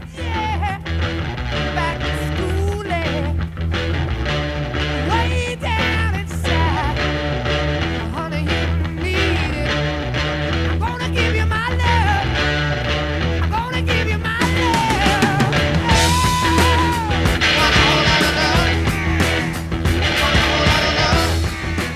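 A 1969 hard rock recording plays loudly and continuously, with dense, heavy guitars, thumping bass and drums, and a wailing, sliding lead line that rises and falls above the band.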